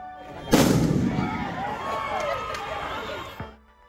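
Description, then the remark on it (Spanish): A sharp, loud firework blast bursts out early, followed by a noisy crowd shouting and cheering, then a second, softer bang near the end; rockets and mortars set off during a street celebration in Nicaragua. “Los cohetes iluminaron el cielo y los morteros se escucharon en diferentes barrios del país”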